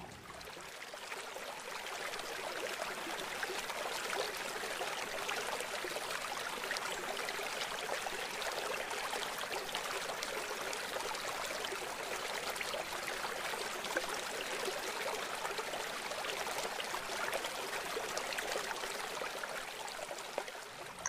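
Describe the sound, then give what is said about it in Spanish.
A river flows steadily and continuously, an even rush of water with a bright, splashing texture, holding at a constant level throughout with no voices. “Te dejo que disfrutes unos segundos de tu río.”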